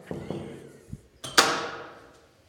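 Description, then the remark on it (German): A few dull knocks on an office door on the third floor of a building on Martin-Luther-Platz in Linz, followed by a sharper clack and a brief rustling rush as the door seems to open. No one speaks. “Ich klopfe das mal an.”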